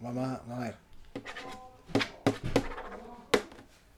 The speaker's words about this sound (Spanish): Qué bueno que se escucha la sí, weá. Se escucha muy fuerte. sí, Mira, la mía suena así. ¿Cómo, suena tu firma?